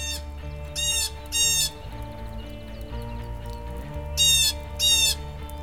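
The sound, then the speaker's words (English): A blue jay gives four harsh, raspy squawks in two quick pairs separated by a pause, fairly loud, over a steady humming musical background. “Blue jays are also excellent mimics and are often heard making hawk calls when warning others of a predator nearby.”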